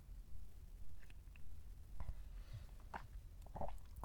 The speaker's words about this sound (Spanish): Bueno, antes, pausa para un traguito de café.